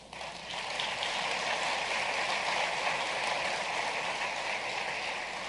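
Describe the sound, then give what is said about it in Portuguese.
An audience applauds the Lord in a dense, steady wash of many hands clapping, starting abruptly and holding at an even, fairly loud level throughout, with no voices over it. “Eu nunca entendi essas palmas.”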